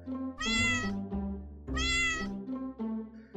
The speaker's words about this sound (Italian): Un giorno camminavo per la strada quando ho visto un gattino abbandonato.